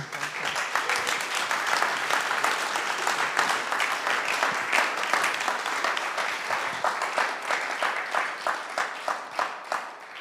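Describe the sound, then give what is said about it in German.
An audience applauds steadily with dense, crackling claps throughout, the clapping thinning toward the end into more distinct individual claps. “ich glaube, wir dürfen dem Krieg einen Riesenapplaus geben”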